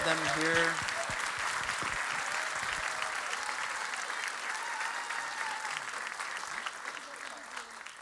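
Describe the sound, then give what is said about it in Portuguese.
An audience applauds the Lord, welcoming visiting missionaries, with dense, steady clapping that holds at full strength for about eight seconds. A voice is briefly heard over the first moment before the applause takes over. “Forte aplauso ao Senhor.”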